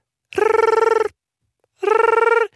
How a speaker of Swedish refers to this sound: hennes mobil vill inte sluta ringa.